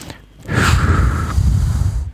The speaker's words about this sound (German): und ich habe versprochen, für ihn so ein bisschen zu atmen. So, es kommt jetzt nämlich. Zu atmen.